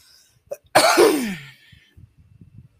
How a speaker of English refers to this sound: So, excuse me, I got hiccups.